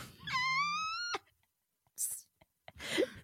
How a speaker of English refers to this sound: The cats are lapping Mercy! Oh God, I pissed myself and my cats love it!